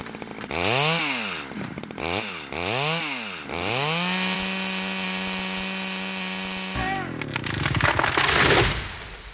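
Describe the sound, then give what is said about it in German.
A chainsaw revs up and down a few times, settles into a steady high whine as it cuts, then gives way to a noisy rush of cracking as the tree falls. “Ja, wir müssen natürlich den Wald nutzen. Also Holz ist ein wichtiger nachhaltiger Rohstoff. Aber gerade wenn äh, ganz alte Bäume fallen”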